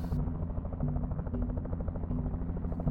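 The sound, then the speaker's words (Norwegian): A steady, loud helicopter drone with rhythmic rotor chop, constant throughout, as the helicopter takes off from fresh snow with a shot animal on board and heads toward a lavvo camp; no voices are heard. “Piloten tar av og setter kursen mot lavvoen og resten av følget.”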